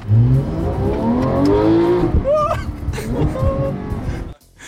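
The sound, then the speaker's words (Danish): A Porsche 911 GT sports car engine revs hard as the car accelerates fast, its pitch climbing through gear changes, loud, before cutting off abruptly near the end. “Og så skal du høre, hvordan en Porsche 911 GT egentlig skal lyde, når den kører hurtigt.”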